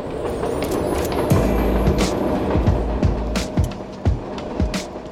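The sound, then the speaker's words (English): An elevated 5 train rattles past overhead, above a storefront 30 minutes from Midtown Manhattan: a loud, steady low rumble broken by a rhythmic run of sharp clacks and thumps as the wheels cross the rails, with no voices. “The Hope Line is run out of a storefront, right underneath the 5 train, which rattles past every few minutes.”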